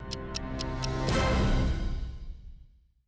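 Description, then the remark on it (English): A short draft announcement chime played each time a new pick is made: five quick, bright ticks lead into a swelling, resonant tonal hit that rings out and slowly fades over a couple of seconds, with no voices. “You're also gonna there's gonna be a little draft chime. So every time mm-hmm. there's a new pick, you're gonna hear this sound.”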